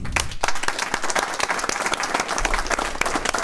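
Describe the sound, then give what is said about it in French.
An audience applauds the speakers at the end of a discussion, many hands clapping in a dense, continuous patter that stays loud throughout, with no voices standing out. “Bah écoutez, un grand merci à tous et je pense qu'on peut vous applaudir.”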